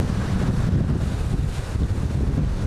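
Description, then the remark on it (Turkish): Strong storm wind buffets the microphone in a constant roar while heavy sea waves surge and churn, loud and continuous with no voices, as the sea overflows onto the streets of Konak during a heavy downpour and storm. “Etkili sağanak yağışa fırtına da eklenince deniz taştı.”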